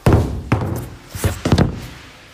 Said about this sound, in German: Alles, was ich hab, lege ich jetzt einfach mal oben so ganz professionell auf die Schachtel.